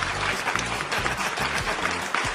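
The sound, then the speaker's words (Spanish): A recorded applause sound effect played on the live rock show Rockout from Mexico: dense, steady clapping from a sizeable crowd that fills the whole moment at an even level, with a faint low hum or tone beneath it. “Aplausos, maldita sea.”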